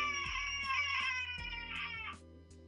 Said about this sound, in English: A rear door of the Rolls creaks open, slowly.